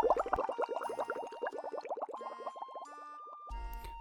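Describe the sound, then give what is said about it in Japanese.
A sinking-to-the-seabed sound effect: a dense stream of underwater bubbling and gurgling, rapid overlapping bubble pops rising and churning, fading to a thinner trickle near the end with a low rumble returning at the close. No talking. “はい、えー、それじゃあね、えー、今回いただいた耳たこフレーズすべ、えー、て海底に沈めたいと思います。”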